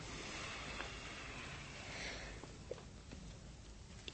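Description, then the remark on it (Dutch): Ship machinery whirs in a steady, broad hum with a low rumble underneath, while a few faint, sparse ticks and clicks surface near the end. No one speaks. “Het schip slaapt nooit. Je hoort altijd dingetjes snorren en tikken.”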